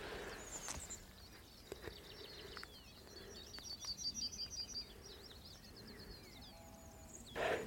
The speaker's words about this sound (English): yellowhammer singing in the tree beside me.